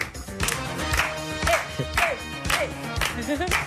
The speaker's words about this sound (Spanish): Venga, palmas todos.